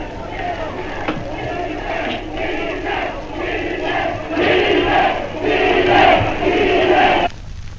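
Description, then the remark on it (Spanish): A large football stadium crowd of people from Arica roars and shouts continuously for Chile during a match against the Soviet Union, swelling louder in waves, with many voices blending into a dense cheer that cuts off abruptly near the end. “Ahí está los ariqueños gritando por Chile.”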